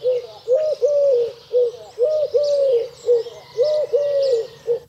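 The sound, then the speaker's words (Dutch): A Eurasian collared dove coos its three-part call, short-long-short, repeated three times in a steady rhythm, clear, with faint birdsong and insect chirping in the background. “Ja, de Turkse tortel heeft een driedelige groep.”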